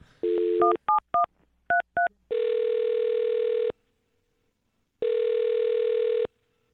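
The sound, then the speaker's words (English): A quick string of telephone keypad tones as a phone number is dialed, followed by two long, steady ringback tones separated by a pause. Clear, with no voices. “I'm going to dial her phone number right now.”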